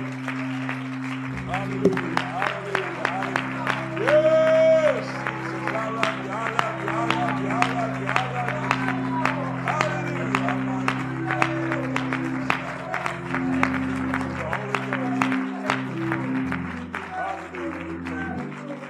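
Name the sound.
audience clapping hands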